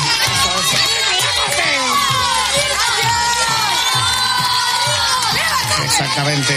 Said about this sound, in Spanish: Sí. Aplausos.